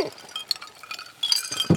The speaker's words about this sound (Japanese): ではもう早速今週も私たちの地元熊本の高橋酒造の米焼酎白竹城で乾杯しましょう乾杯乾杯いただきますよいしょ